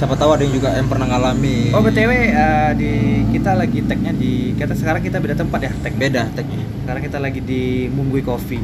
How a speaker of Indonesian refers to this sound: Munggui Coffee. Jadi kalau misalnya agak berisik-berisik sedikit itu suara motor ya suara sama mobil.